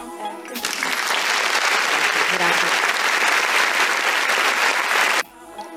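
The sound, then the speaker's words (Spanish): A burst of loud, steady applause from a crowd lasting about five seconds as a team member is introduced, dense clapping that starts abruptly and cuts off, with brief talk just before and after. “Así que lo quería presentar porque eh, con los aplausos?”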